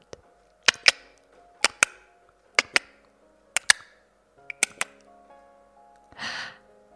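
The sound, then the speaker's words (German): Crisp hoofbeats of a unicorn galloping toward the listener over a green meadow clop in steady paired beats, about one pair per second, with no talking, followed near the end by a short breathy snort. “Über eine wunderschöne grüne Wiese galoppiert ein Einhorn auf dich zu.”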